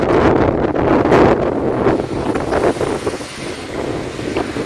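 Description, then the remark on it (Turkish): Blizzard wind roars steadily in Süleymanpaşa district of Tekirdağ, where the blizzard cut visibility at times to 10 meters and the temperature was one degree below zero; a loud, dense rushing with gusty surges and buffeting on the microphone, with no voices. “Süleymanpaşa ilçesinde tipi nedeniyle görüş mesafesi zaman zaman 10 metreye kadar düştü.”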